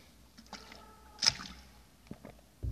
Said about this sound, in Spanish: Disculpen, estaba tomando agua para hidratarme, porque hacer este programa cansa.